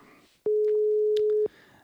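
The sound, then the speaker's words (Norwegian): A single outgoing phone ringing tone: one steady, loud electronic beep lasting about a second, with faint background noise before and after it. “Vi skal ta og ringe opp, vi, og så satser vi på at eh, han har full kontroll på lyden i dag.”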